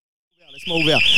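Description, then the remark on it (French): After a moment of silence, a shrill, high electronic building alarm goes off in a studio during a broadcast and swells louder, with a person's voice briefly audible underneath. “il y a l'alarme qui se déclenche”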